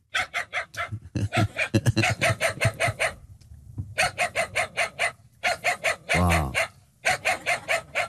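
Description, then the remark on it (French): A dog barks in rapid, yappy, loud bursts, with a few short pauses and a brief whining, wavering cry before the barking resumes; the dog is Funky, voiced by Manu Payette in the film Boulet et Bill. “bah, funky, c'est le chien que vous avez doublé dans, dans Boulet Bill, sa réponse”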